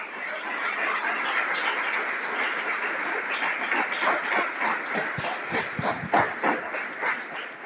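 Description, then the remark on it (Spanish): A large crowd claps steadily for several seconds during a sermon, applauding the Lord, a dense, loud wash of applause with sharper individual claps standing out near the end, and no voices over it. “Denle un aplauso al Señor, Él lo merece.”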